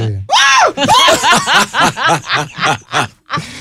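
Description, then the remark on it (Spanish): A person imitates a screaming goat with their voice: a loud, strained opening yell followed by a rapid series of wavering, bleating cries, with no other talking. “yo grito en un chivo. ¿Tú viste la chivo gritando así de mí?”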